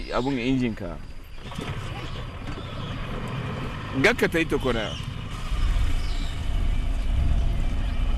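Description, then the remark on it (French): A pirogue's outboard motor drones steadily, its low rumble swelling louder toward the end, while voices call out briefly over the engine noise, as the boat approaches the village of Kerekopto. “Bon, bah remettons le moteur si on ne veut pas se faire renverser alors.”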